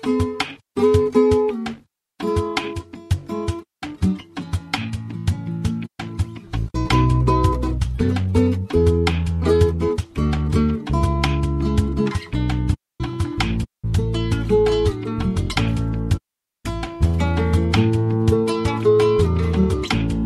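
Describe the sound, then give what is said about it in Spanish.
A song plays loudly and steadily, with a full instrumental backing, a deep bass entering partway through, and rhythmic, harmonically rich melody broken by a few brief pauses. “lo vamos a despedir con una canción que a él le gusta mucho, que tiene que ver con un oriental,”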